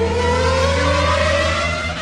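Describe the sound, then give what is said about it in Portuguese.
A race car engine roars loudly and steadily on the track at the 2011 Brazilian Grand Prix, its pitch climbing slightly as it revs, a continuous mechanical howl with no voices present. “Sentir o calor do motor. Ouvir o ronco de longe perceber a chegada do som reverberando no peito e confundindo o batimento cardíaco”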